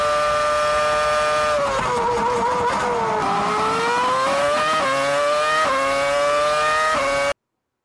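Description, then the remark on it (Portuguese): A loud, sustained car horn of a car in an animation blares for several seconds, its buzzy tone stepping and sliding between pitches like a playful tune, with no one speaking. “A, a buzinadinha pro, pro canal do Channel, pro, pro, carro do Channel é demais”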